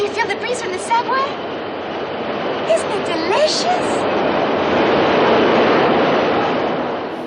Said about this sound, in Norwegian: Hver gang T-banen kjører forbi under henne, så blåser kjolen opp, og hun må bruke begge hendene til å holde den nede for å ikke blottlegge seg helt.